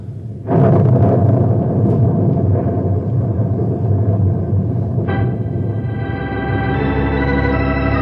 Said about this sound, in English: Yeah, yeah, but let's get inside the cave before we get soaked. Here comes that rain again.